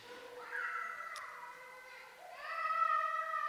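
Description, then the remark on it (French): A child in the audience cries out during a broadcast church sermon, a long, wavering wail that rises in pitch partway through, loud, with faint room noise beneath. “Cette phrase, ceux qui écoutent la diffusion, ils entendent des cris d'enfants.”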